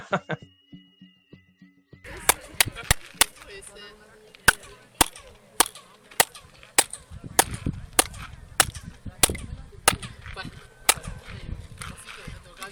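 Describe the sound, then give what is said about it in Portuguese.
Sharp hand claps ring out in a steady, brisk rhythm, each one answered by a chirpy echo that sounds like the call of a quetzal bird, while a crowd murmurs faintly in the background. “Então, eu, ouvintes da Taverna Online, agora vocês vão ouvir transformação da palma piado do passarinho de nome difícil.”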